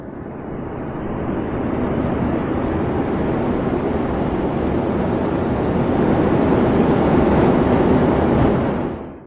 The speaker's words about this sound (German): Jetzt geht's erstmal los und das Flugzeug hebt zum Start ab.